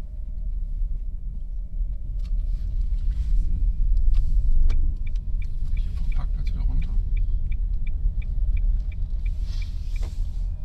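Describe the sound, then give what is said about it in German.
An electric car pulls away with its artificial driving sound switched on, a steady synthetic hum over low road rumble, with a regular clicking ticking along and a person talking briefly. “Jetzt fahren wir an mit Geräusch.”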